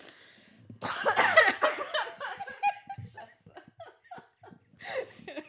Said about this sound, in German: Synchronhusten. Einmal kollektives Husten. Also schon ganz trocken.